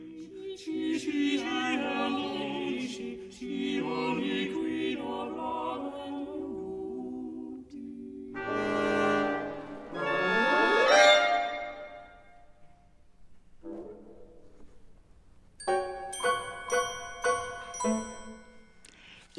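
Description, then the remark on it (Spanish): Modern orchestral music from 1955–1956 full of sharp, chirping figures imitating exotic birdsong, with bright tinkling percussion, sweeping glissandi and abrupt pauses between dense, busy bursts. “escuchar lo que estamos oyendo ahora, Pájaros Exóticos. Esta es una obra de entre 1955 y 1956 de Olivier Messiaen”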